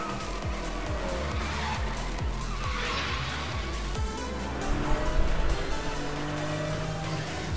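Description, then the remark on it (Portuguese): Racing cars in a video game car race roar steadily with engines repeatedly revving up in rising sweeps, while tires squeal and skid in long high whines; loud and continuous throughout, with no voices. “vai ter um jogo de corrida de carro no Fortnite também”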